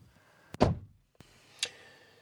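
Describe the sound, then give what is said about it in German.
A door is pushed shut with a solid thud during heavy rain, followed by two sharper clicks like a latch catching. No one speaks. “muss man eben die Türe schließen wegen dem Regen.”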